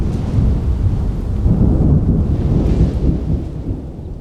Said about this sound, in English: The heavy rain, wind, thunder, and lightning were super loud inside the tents.